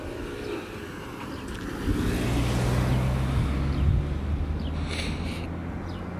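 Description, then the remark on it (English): Steady rumble of cars driving by outdoors, with engine drone swelling louder midway and a passing whoosh fading out; no voices, just continuous road traffic noise. “For example, for me to, to, to talk like this outdoors while people driving by, I have built the, the muscle for that.”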